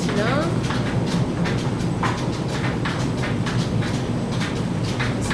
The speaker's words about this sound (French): C'est comme tout un, c'est un peu tout un orchestre hein, et on, sait, on sait quels bruits sont justes ou ne le sont pas. Euh, un moulin, ça se conduit aussi euh, à l'oreille.